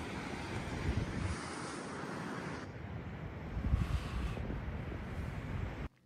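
Waves wash onto a beach in a steady rushing roar mixed with wind buffeting the microphone, swelling briefly near the middle before cutting off abruptly at the end. No voices.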